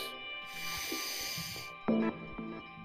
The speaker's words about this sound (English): Deep calming breath. 10 seconds.